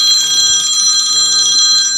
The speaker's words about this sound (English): and um, sorry that phone call threw me off.